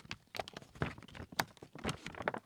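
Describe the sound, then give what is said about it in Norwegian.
Rustling and crinkling of paper magazine pages being handled and flipped, a series of irregular crisp bursts with no talking. “Det stemmer, det er blad. Gode, gamle papirformatet.”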